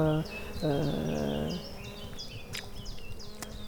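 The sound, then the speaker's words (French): A bee or fly buzzes, a brief burst and then a longer wavering drone lasting about a second, while small birds chirp and twitter in the background. “C'est les insectes, euh, c'est les oiseaux, beaucoup”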